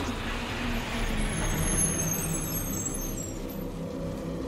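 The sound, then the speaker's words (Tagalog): A jeepney brakes hard: a steady, loud engine rumble with a thin, high brake squeal that fades out. No one speaks. “Mabilis kong prenino ang jeep.”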